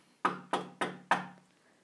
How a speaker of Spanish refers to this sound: El zorro llamó a la puerta